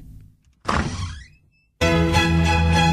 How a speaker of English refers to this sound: Okay, let's knock on the door. Hello.